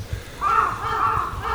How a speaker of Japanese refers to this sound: すごいカラスが鳴いてます